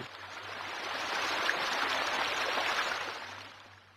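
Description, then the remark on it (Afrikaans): Water pours and rushes steadily, a continuous broad hiss of the Rauri Hoek stream flowing from a broken pump station into a river in the Durban metro, with a faint low hum underneath and no voices. “Die stroom Rauri Hoek vloei van 'n stukkende pompstasie in 'n rivier in die Durbanse metro.”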